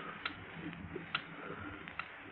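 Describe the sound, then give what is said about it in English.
Faint, steady ticking like a clock, a few soft clicks spaced evenly over a low background hum, with no voices. “Listen, it's ticking. Only two things tick a clock and a time bomb.”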